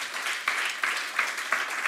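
An audience applauds steadily, a dense crackle of many hands clapping at once with a few stronger surges rising every half second or so, fairly loud throughout.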